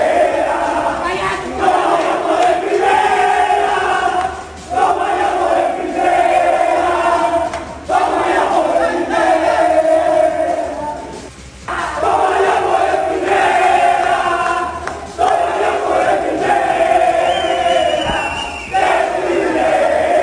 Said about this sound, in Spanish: Y en particular el festejo se dio precisamente en, en el camerín de los jugadores de Tomayapo. Lo escuchamos a continuación de esta manera, como si hubieran ganado ya el campeonato, los de Tomayapo lo festejaban.